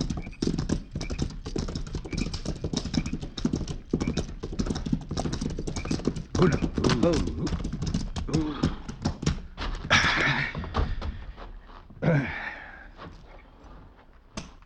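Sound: horse hooves clip-clopping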